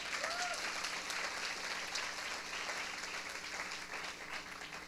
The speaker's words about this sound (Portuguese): Se você recebe, dá um aplauso a Jesus aí no seu lugar.